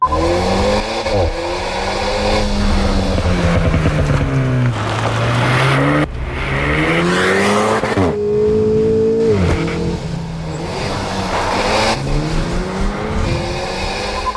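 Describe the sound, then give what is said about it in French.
The engine of a new Alpine Renault sports car revs hard through repeated gear changes on mountain roads, pitch climbing and dropping as it accelerates and brakes, loud, with a brief tire squeal and no voices. “On entend le moteur de la nouvelle Alpine Renault sur les routes de montagne.”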